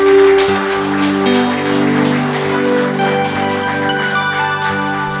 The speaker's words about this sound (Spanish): un fuerte aplauso a la palabra del Señor.